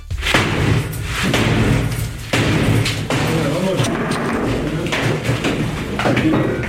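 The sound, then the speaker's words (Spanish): Police batter down the door of an apartment during a search in Seville, Spain, with a series of heavy, booming thuds at an uneven rhythm, loud, with muffled voices and commotion in the background. “Los agentes han realizado 13 registros, uno de ellos aquí en Sevilla, y este es el momento en el que la policía derriba la puerta de un piso.”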